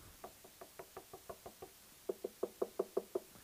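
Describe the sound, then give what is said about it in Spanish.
Knocking on a door in two rapid bursts: about eight steady, moderate raps, a short pause, then a louder, more forceful series of around eight knocks, with no voices. “¿Nos dejan entrar, por favor? No. Cuando ya vienen con una orden de la corte, ellos llegan y tumban la puerta y se meten a su casa y van a buscar todo lo que quieran.”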